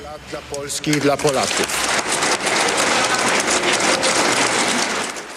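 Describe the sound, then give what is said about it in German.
A voice speaks briefly, then members of the PiS faction in a Polish parliamentary chamber break into loud, sustained applause, a dense crackle of many clapping hands that holds steady to the end. “Das wiederum ist der Applaus aus der PiS-Fraktion.”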